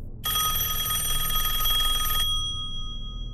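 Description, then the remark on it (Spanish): A telephone bell rings in one sustained, rapidly trilling burst of about two seconds, bright and metallic with strong high harmonics, then cuts off, leaving a low rumble beneath. It is a call to a family at night. “Lo inesperado es que solo dos días después de lo sucedido, en la noche del 2 de junio, la familia recibió una llamada telefónica que les puso la piel de gallina.”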